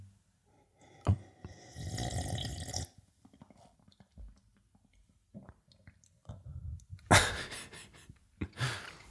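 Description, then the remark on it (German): ASMR-style mouth sounds of someone sipping and swallowing water: a long slurping gulp, soft wet clicks, then a couple of louder gulps near the end. No one speaks. “Ein Stock Wasser? Ja. ASMR-Style.”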